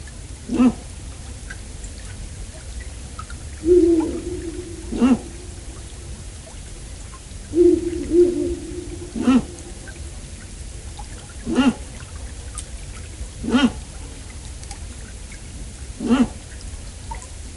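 A female owl gives short, harsh barking calls to call the male to the nest, about seven spaced irregularly, a few followed by brief low hooting notes, against a steady background hiss.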